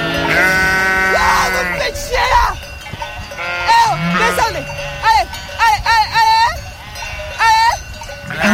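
sheep bleating

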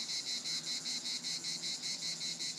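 cicadas singing

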